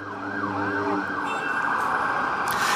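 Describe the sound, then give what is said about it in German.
A wailing emergency siren sweeps up and down over a dense wash of traffic rumble and city street noise in New York City, loud, with no one speaking. “Ich weiß, wir können vielleicht mal kurz reinhören, ähm, was einen da erwartet, wenn man nach New York reinkommt.”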